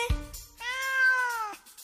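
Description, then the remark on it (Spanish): A single long, drawn-out cat meow, clear, rising slightly then falling away, preceded by a brief low thump. “¿Quién es? ¡El gato!”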